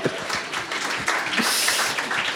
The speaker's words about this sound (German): Auch bitte einen kleinen verhaltenen Applaus